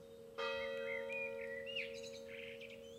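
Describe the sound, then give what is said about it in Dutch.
A church bell strikes once with a loud clang, its steady metallic hum lingering afterward while birds chirp and tweet over the fading ring. “Die slaat de klok, hè?”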